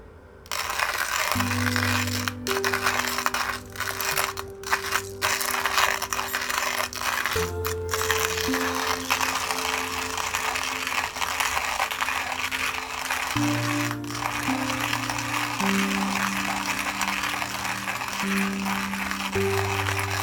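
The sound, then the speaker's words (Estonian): A coffee grinder whirs steadily for about twenty seconds, its loud motor hum dropping and shifting pitch several times over a gritty, rattling crunch of beans. No one speaks. “kohvi, veski”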